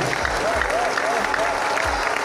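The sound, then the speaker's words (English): A church audience applauds for Jesus in a steady, dense wash of clapping, with faint vocal tones and low thumps mixed in beneath the continuous roar of hands. “If you're clapping, clap the Lord for Jesus.”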